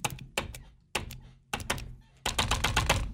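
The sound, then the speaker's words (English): Hard, sharp taps of a stylus striking a payment touchscreen that asks whether to round up for UNICEF, pressing no: a few spaced knocks, then a fast, dense flurry of rapid tapping at the end. No talking. “so this is the noise I'm making with my stylist as I'm banging no.”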